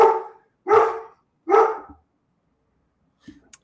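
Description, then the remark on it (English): A dog barks three times in a steady rhythm, loud, followed by a short pause and a couple of faint clicks or small noises at the end. “I'm so sorry. That is my that is my dog, and he's right over there.”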